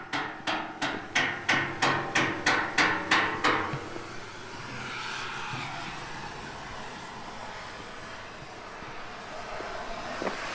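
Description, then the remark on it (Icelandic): A quick, steady run of about a dozen sharp hammer blows rings out, then stops, leaving a low background rumble like traffic or machinery. “og svo eru hamarshöggin hérna dinja.”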